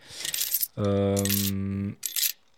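A coin tip sound effect: coins clatter and jingle in a bright burst, give way to a steady, low buzzing tone for about a second, then a shorter final jingle of coins follows.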